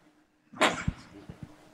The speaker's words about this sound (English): Sorry. again. Bless you.